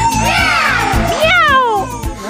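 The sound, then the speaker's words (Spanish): An electric guitar bends and slides through a series of whining wails mimicking a cat's meow, rising and falling over a steady, thumping rhythm section in a loud, full mix. “Y … con la guitarra contestando.”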